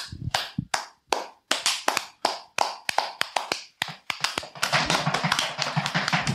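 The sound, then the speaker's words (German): Applause from a small group for a gym team: a few scattered, sharp claps at first, quickly building into a denser, steady round of clapping that continues to the end. “Ein Applaus bitte.”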